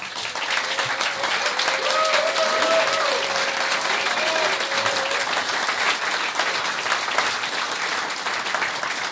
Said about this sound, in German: Und deshalb nochmal einen Riesenapplaus für die ….